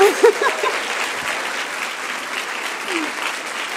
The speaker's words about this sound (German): Ich finde, man könnte ruhig mal für sie klatschen auch. Ja.